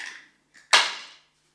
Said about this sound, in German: Wir, wir würfeln jetzt ja. beide ja. einmal jeweils und dann gucken wir mal, ob wir Meier haben oder eben Niemeyer.